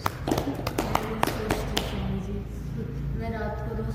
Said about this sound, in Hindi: वाह बहुत अच्छा ताली बजा